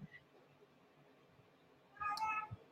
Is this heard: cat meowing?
yes